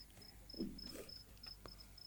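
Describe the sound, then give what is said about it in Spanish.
A single cricket chirps in a steady, evenly spaced rhythm of short high-pitched pulses, fairly faint against a quiet background with a few soft low thumps. “te enganchamos de vuelta, voy al grillo.”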